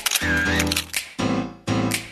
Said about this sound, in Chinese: 咔嚓咔嚓。美好的事物 就用相机拍下来。